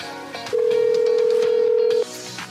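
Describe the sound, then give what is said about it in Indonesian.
A telephone ringback tone from an outgoing call: one steady, clear buzzing tone lasting about a second and a half, sounding over faint background music. “Beda loh nada sambungnya Iya beda nih iya.”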